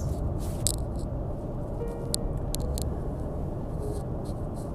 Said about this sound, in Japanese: じゃあ今日はちょっとねあのせっかく実家にいてまあ、今あのちょっと外出てきてね車乗ってるんだけども感じたことを少し話したいなと思う